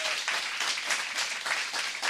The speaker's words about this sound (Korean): 아, 박수로 모시겠습니다